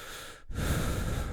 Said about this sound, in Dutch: Soms is het zo irritant als je hart in die microfoon ademt.